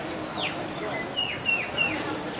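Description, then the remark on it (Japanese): A small bird sitting on a chair chirps in a series of short, high descending tweets, about five calls in quick succession, set against a steady outdoor background hum at an outdoor hawker food court in Singapore. “椅子に座ってぴよぴよ鳴いてますここポーカーっていうとこはあのシンガポールの人たちにとっての憩いの場であり食堂っていう感じですね”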